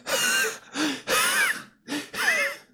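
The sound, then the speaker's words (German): A person imitates the heavy, labored breathing of a sick child with bronchitis: four or five rough, wheezy breaths in a steady rhythm, fairly loud, with no words spoken. “Und dann atmen die auch so.”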